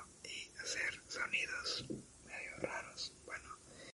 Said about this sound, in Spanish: Aparte del podcast, creo que también puedo hacer un canal de ASMR, que es como esto de estar hablando así a la cámara, de una cámara al micrófono.